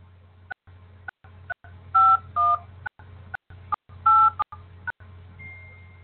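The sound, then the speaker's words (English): A series of short telephone keypad tones beeps in an uneven sequence as a host PIN is punched in on a Blog Talk Radio call, over a steady low hum of a phone line. No one speaks. “Please enter your host PIN. When finished, press the pound key.”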